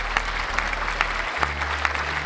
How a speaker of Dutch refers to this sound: Daar gaan hard applaus